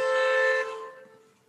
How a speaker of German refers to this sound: wo draußen zum einen gehupt wird. Ähm, das macht man endlich auch mal bei dir, endlich mal Lärm. Das ist, das, ist das erste Mal, dass ich bei dir Lärm höre.